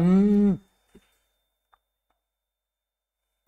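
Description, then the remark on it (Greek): A voice makes a loud, low buzzing hum for about half a second, imitating a droning buzz, then stops abruptly and is followed by a few faint clicks and near silence. “έχουμε κάποιο βουητό γνωρίζετε τι βουητό φίλε μου δυνατό βουητό το κάνω εγώ κάνω”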